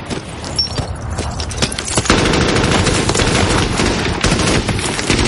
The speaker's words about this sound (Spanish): Los alemanes se hacen fuertes ayudados por la ametralladora del 20. Esa ametralladora nos machaca.